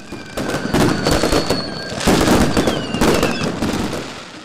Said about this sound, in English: Up and down the country, crowds have gathered to watch fireworks light up the sky.